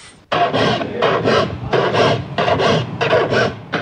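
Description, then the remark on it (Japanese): A file rasps across saw teeth in steady, repeated strokes as a craftsman sharpens a saw in Miki, a hardware-making town; each stroke a gritty scraping burst with brief pauses between, fairly loud with no talking. “ギコギコ言ってますけれどもねなんか切ってますよねノコギリの目立ての音です目立ての音なんですか、はい、今日は金物の町三木の職人さんを訪ねてきました”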